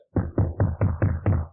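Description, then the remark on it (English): Six quick, evenly spaced knocks on a door, rendered by a voice imitating the sound as a steady series of fairly loud thumps with no other talk. “That's you knocking at her door to make the amends.”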